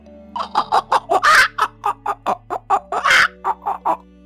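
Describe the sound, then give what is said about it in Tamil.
A voice mimics a hen clucking in a quick series of short, rhythmic clucks, with two longer, louder squawks mixed in, clear over faint background tones. “இது நடந்து கொஞ்ச நாளுக்கு அப்புறமா அந்த விதைகள் எல்லாம் வளர்ந்து புது கோதுமை மணிகள் வந்திருந்துச்சு அதை பார்த்த இந்த கோழியோ”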